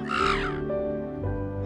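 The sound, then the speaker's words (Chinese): A crow gives a harsh, raspy caw that trails into a lower, drawn-out croak, with a steady low rumble underneath; no one speaks. “乌鸦会抓走鸵鸟宝宝。”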